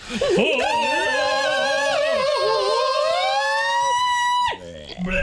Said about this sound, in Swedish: och det här kan du ta med dig som det svenska arvet, den svenska kultur och musikarvet, genom att vi avslutar med ett heligt, traditionellt opera power metal-skrik.